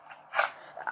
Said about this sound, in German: Das ist ein Wolf! Der hat da gechillt. Hey! Willst du alles über meine Bergbauabenteuer erfahren, Wolf?